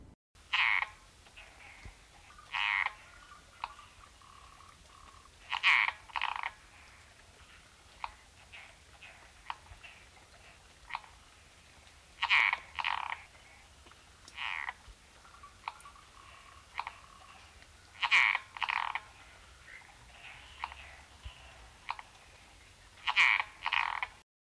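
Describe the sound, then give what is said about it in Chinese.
Latouche's frog calling: short, soft, raspy croaks repeated in irregular clusters, often two or three in quick succession, separated by quiet pauses with no other sounds or voices. “不愧是拉肚子的青蛙的叫声，都拉西式赤蛙。”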